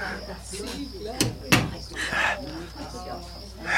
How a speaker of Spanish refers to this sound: Fue la puerta. La escuché.